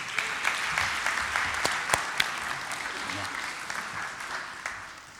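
A room full of people claps steadily, a dense wash of applause with sharp individual claps popping out, sustained throughout before easing slightly near the end.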